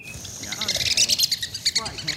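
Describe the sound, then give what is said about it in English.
Three red-cockaded woodpeckers, an endangered species, call from a tree in their West Georgia habitat in a quick run of high, squeaky chirps, overlapping in an uneven rhythm, clear above a soft outdoor background. “the red cockaded woodpeckers just lit in that tree right there. Hear them?”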